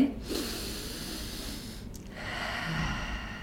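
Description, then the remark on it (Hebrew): A slow, deep breath is drawn in through the nose, then after a brief pause let out through the mouth as a long, airy exhale. It's steady, with no talking. “אבל תוך כדי שאני צופה בפורנו ונוגע בעצמי, אני יכול להוסיף נשימות עמוקות, שזה פנימה מאף, החוצה מהפה.”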